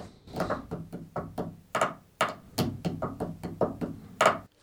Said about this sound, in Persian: ببینید با همین ابزار یعنی همین دستی که داشتم باهاش نویز تولید میکردم و همین چوب الان دارم براتون موسیقی میزنم